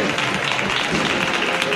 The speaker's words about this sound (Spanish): pues mira, me despido ah. con estos aplausos. Por tu buen trabajo. Ahora que se ha levantado el paso de palio y hace este tramo final. Adiós, aplauso a esa levantada.